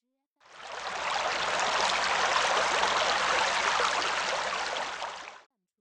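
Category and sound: nature, flowing river water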